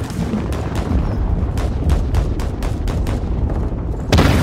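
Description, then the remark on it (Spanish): Video game combat with rapid bursts of gunfire crackling over a constant low rumble of explosions, the shots coming in quick irregular volleys before a louder blast near the end. “Jugarlo con audífonos y escuchar cómo tu personaje manipula el arma o cómo suenan las balas que pasan cerca de ti hace que la inmersión sea total.”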